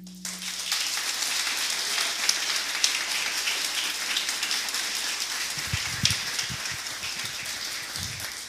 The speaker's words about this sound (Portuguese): Amém. Aplauda o Senhor.